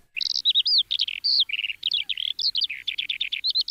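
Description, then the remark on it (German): A lark sings continuously: a rapid, unbroken stream of bright chirps, trills and warbled notes with no pauses, clear and fairly loud throughout. “Klingt nicht so richtig nach Lerche. Zeigst du mir mal, wie es richtig klingt?”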